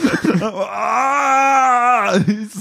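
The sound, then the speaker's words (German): A voice imitates the pained scream of someone who, after brushing their teeth, gulped whisky from a plastic bottle in the dark thinking it was water: one drawn-out, strained cry lasting over a second, loud, with brief vocal sounds before and after it. “Und du hörst nur diesen schmerzerfüllten Schrei.”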